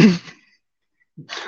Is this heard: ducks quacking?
no